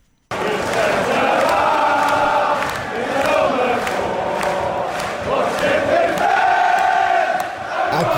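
A large crowd of Liverpool football supporters at Anfield chants together in unison, a loud, sustained wall of voices with rising and falling melodic lines and rhythmic accents throughout.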